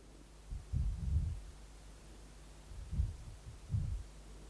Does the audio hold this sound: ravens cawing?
no